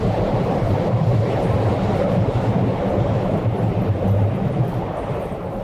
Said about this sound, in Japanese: ああ、電車うるさいですね。